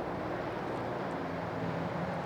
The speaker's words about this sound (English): hold on, there's a helicopter.